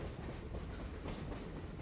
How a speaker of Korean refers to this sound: 초라해 보이는 병사들을 가득 태우고 전선으로 기어가던 가늘고 긴 기차.